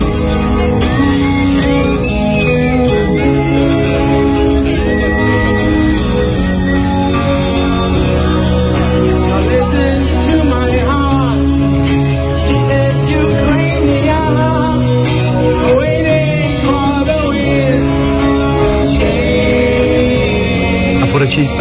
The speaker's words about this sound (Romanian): Nu prea mai fluieră bine. Ia. E un fluierat stins.